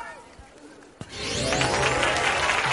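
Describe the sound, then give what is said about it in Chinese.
After a sharp thump, steady applause for performers on the stage of the show Ace vs Ace (Wang Pai Dui Wang Pai) swells up and keeps going as a dense, even wash of clapping. A few voices can be heard faintly before it starts. “我们再次把掌声送给他们。”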